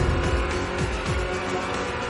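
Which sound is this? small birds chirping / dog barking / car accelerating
car accelerating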